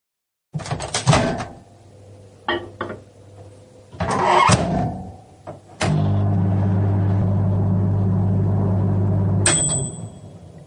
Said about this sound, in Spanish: Ahí está. Vamos a hacer la magia, la magia del podcast y vaya a oír cómo suena mi microondas.